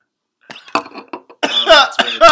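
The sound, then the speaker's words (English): A person coughs: a few short, dry hacks, then a louder, raspier burst of coughing that ends with a rough, throaty edge. “Excuse me, it's not coronavirus.”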